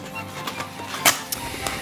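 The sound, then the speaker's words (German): A few sharp snips of scissors cutting through a sticker stuck right over the slot and flap of a cardboard box, irregularly spaced, with one louder cut in the middle and no talking. “Trotzdem hole ich jetzt mal die Schere dazu, weil die haben den Aufkleber hier direkt über den Schlitz gemacht.”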